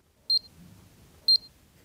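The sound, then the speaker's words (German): Two bursts of a high electronic double beep, about a second apart, each a quick pair of bright tones from a Mediminder, a watch-sized medication reminder wristband with a white plastic casing, reminding the wearer to take a forgotten tablet, over a faint low background rumble. “So klingt es, wenn der Mediminder einen daran erinnert, eine vergessene Tablette zu nehmen.”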